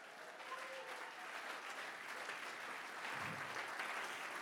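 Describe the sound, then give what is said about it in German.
Steady audience applause for Jesus after a German-language worship song fills the whole stretch, a dense wash of many hands clapping at once, fairly loud and sustained without pause, with a faint low thump near the end. “Ein Applaus für Jesus!”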